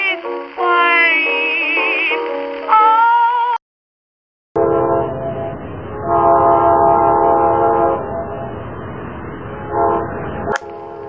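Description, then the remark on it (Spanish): A loud train horn blares in sustained tones, then after a brief silence a train rumbles steadily with more horn blasts over the noise, ending in a sharp metallic screech. “Pues bien, ese sonido es el que nos avisa que inevitablemente hemos llegado a nuestra parada de hoy”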